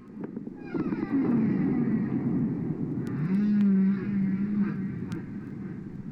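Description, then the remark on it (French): Humpback-style whale song: two long, low, sliding moans rise and fall one after another over a steady wash of underwater rumble and hiss, with no voices present. “Si maintenant, euh, au lieu de juste les champs de baleine, on part du côté de la plongée, de l'oxygène et de son manque,”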